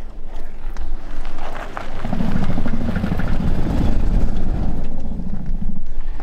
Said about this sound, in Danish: Ja, så lyder det, når øh, der kører en bil over øh, færisten.